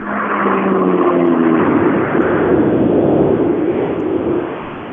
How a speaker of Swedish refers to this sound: Ja, underbart. Det finns alldeles för lite femcylindriga bilar ute i rallyskogen nu för tiden.